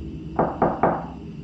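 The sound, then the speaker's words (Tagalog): Three evenly spaced knocks on the wooden door of a home, sharp, standing out against a low, steady background hum with no one speaking. “Nabahala lamang ako nang ang kaluskos ay sinabayan na ng tatlong pagkatok sa pinto namin.”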